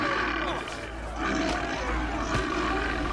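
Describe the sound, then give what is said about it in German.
A polar bear attacking a boat crew on an island north of Norway roars loud, a deep, rough, sustained growl that swells and rumbles on for a few seconds without pause. “Als sie mit Booten aufbrechen, um es zu erkunden, werden sie von einem Eisbären angegriffen.”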